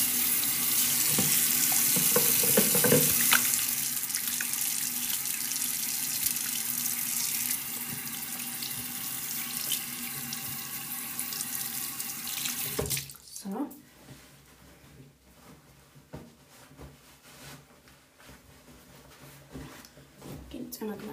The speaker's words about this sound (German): Ich wasche jetzt auch noch die Hände.